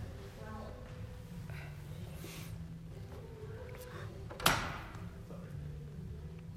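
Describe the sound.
A door swings shut with a single solid thud partway through, brief, set against a steady low background hum with faint voices.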